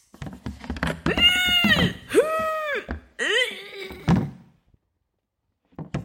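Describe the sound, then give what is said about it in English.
The lid of a pink plastic Tupperware container that held potato salad is pressed repeatedly, letting out three loud, squeaky whining bursts of air with soft plastic clunks between them, then silence. “It's impossible for this container to make a comparable human fart sound.”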